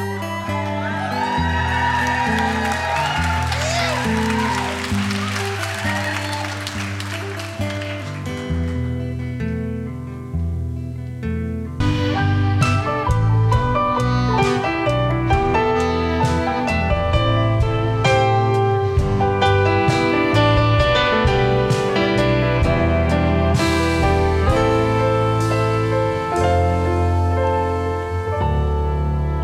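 A live band plays steadily in a 2019 concert recording at the Cork Opera House, with cheering and whoops from the crowd swelling over the music early on before the instruments carry on strongly with a full, rhythmic sound.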